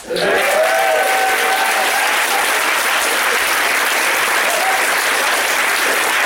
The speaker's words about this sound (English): Shall we give him a big clap?